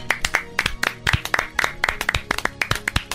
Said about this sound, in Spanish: Venga el aplauso. Bravo.